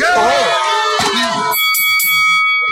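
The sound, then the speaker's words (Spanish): A large crowd at a fight lets out a loud, sustained wave of booing, many voices overlapping, then it gives way to steady droning tones as the jeering fades. “La gente buchea, ¿eh? ¿Me Escuchen. Están diciendo Boo o Burns.”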